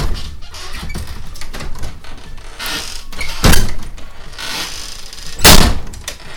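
A house door that had just come open creaks and rattles as it is handled, then is shut with two solid thuds about two seconds apart, the second one loudest. No talking.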